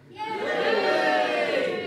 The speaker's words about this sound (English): but we're out and about in the magnificent Turner Contemporary in Margate as guests of the Margate Bookie 2019, the friendly literary festival by the sea. Well, we'll see about that. and we have a live audience that you can probably hear.